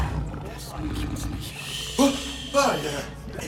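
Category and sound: animal, big cat roaring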